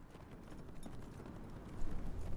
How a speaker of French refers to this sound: L'horizon n'a pas de fin en Mongolie. À perte de vue, le vert des steppes, les ombres qui ondulent sur les collines et soudain, au loin, comme un mirage, un cavalier au galop.